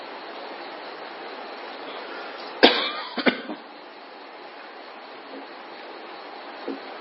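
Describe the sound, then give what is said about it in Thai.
A sudden harsh cough, from someone unused to breathing deeply, bursts out after a deep breath, quickly followed by two or three shorter, weaker coughs, all over a steady background hiss that carries on alone afterward. “ลองหายใจให้เต็มท้องลองดูดิหายใจลึกๆ โดยเหตุที่ไม่เคยหายใจเข้าไปลึกสนอยก็แอ๊กแอ๊กออกมาแล้วแอ๊กแอ๊กออกมาแล้ว”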